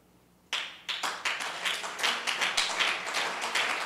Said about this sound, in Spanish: Aplaudid y cantemos juntos a nuestro Dios al son de la música. ¡Hala, hermano! Eso es, desánimo. ¿Cómo sería aplaudir con ánimo, hermano?